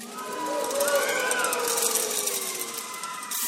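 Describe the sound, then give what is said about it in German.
A loud, sustained din of rattling noisemakers and crowd clamor fills the whole stretch, with shrill tones and shouts rising above the dense, continuous racket, made at the mention of Haman's name during a telling of the story of Haman, Mordechai and King Xerxes. “Jetzt habe ich mich verloren. Vor lauter Geschrei.”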